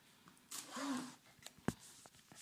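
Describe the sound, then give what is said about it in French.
Quiet rustling and scraping of a smartphone being handled, then a sharp knock as it is set down on a hard surface, followed by a few faint taps. “Mais attends, euh, attendez, je vais peut-être poser mon téléphone, ça va être plus simple je pense.”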